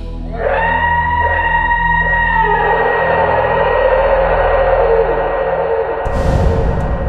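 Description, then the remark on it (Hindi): A loud, terrifying scream inside ruins, heavily distorted and echoing, holds a high wavering pitch for about six seconds before breaking into a harsh burst of noise. “ये चीख इतनी भयानक और तेज थी कि उन चारों ने अपने कानों को हथेलियों से दबा लिया उस खंडहर का शोर कोई भी बर्दाश्त नहीं कर पा रहा था”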